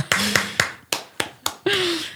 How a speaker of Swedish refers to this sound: Och med det så klappar vi ihop, va? Klappar ihop vet jag inte om vi gör, men vi klappar händerna i alla fall.